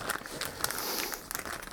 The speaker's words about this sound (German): So, ich habe ein Kabel eingepackt. In so eine Plastiktüte. Sehr gut. Ein Audiokabel. Das kommt jetzt in die Kiste.